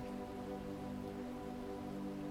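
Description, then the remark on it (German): Steady rain from a nighttime storm drums on a car roof in a dense, continuous patter, fairly quiet and even throughout, with a low droning hum underneath and no voices. “Kein Tropfen schlägt mehr auf das Autodach hernieder.”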